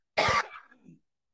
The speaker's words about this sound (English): and it's like this lingering dry cough. Right. And it only happens at night.